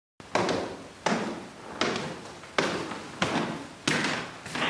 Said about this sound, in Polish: I tam drzwi jednego ze schowków zamyka właśnie Iwon.